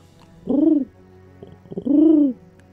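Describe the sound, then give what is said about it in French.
Two low, rounded dove coos, each lasting about half a second, separated by a short pause with a few faint soft flutters, clear with no one speaking. “ils vont faire une envolée de colombes”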